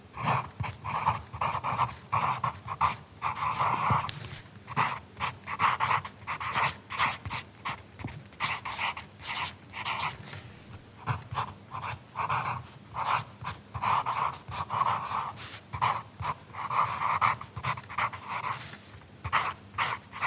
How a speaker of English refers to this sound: Of course, we're just going to hear the piece, which is by Garth Knox, and we'll hear again Dermot Dunn on accordion. The piece is called Luteo Fulvis Ebullition: The Qualities of Water.